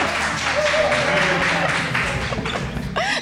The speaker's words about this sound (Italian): No, Però tu spoileri subito il pubblico che applaude. Possiamo dirlo perché questa volta non ci servono i tas- il tasto applausi. Cioè abbiamo l'applauso vero.